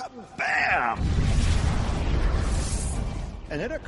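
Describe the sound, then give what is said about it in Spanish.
A loud explosion sound effect representing a supernova, the colossal explosion of a star at the end of its life, erupts into a deep, roaring rumble that sustains for a couple of seconds, framed by brief tonal, voice-like sweeps just before and after. “Una supernova es la colosal explosión de una estrella al final de su vida.”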